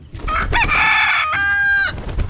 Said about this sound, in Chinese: 哎，公鸡，你又跟人打架了？